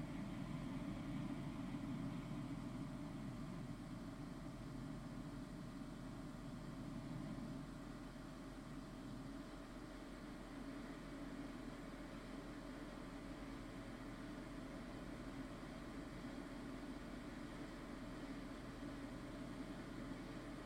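A steady, unbroken wash of pink noise, used as the background sound in a Hemi-Sync demonstration, fills the whole stretch. It is a soft full-range hiss weighted toward a deep rumble, its higher and lower ranges adjusted to compensate for typical human hearing loss, holding an even level throughout with no voices or other sounds.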